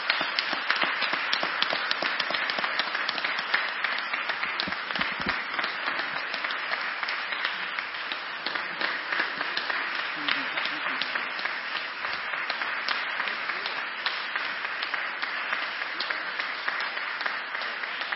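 Sustained applause from an audience for a man just presented with a plaque, a dense, steady crackle of many hands clapping at once that holds at an even, fairly loud level for the whole stretch.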